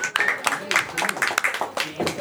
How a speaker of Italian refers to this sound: 61 e mezzo, quindi praticamente un bel applauso per far sentire sono tanti.